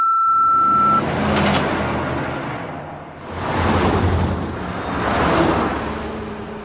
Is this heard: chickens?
no